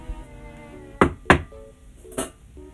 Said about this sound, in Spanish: voy a tocar la puerta.